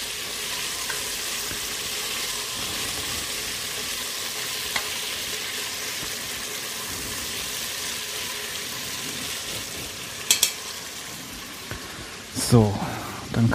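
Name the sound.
food frying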